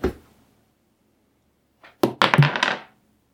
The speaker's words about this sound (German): Und dann würfelst du den gelben nochmal.